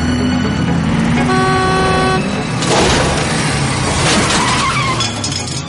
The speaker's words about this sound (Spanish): Pasa por la puerta de Alcalá y poco después se choca con un taxi que cambia de carril sin mirar.